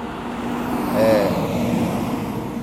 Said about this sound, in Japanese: 今めちゃくちゃでっかいトラックを通ったんですけど